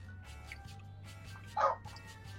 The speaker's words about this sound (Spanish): Yo creo que me está entrevistando un perro, ahorita escuché ahí. Oh, un pinche perro, espérame, déjame cerrar la pinche puerta.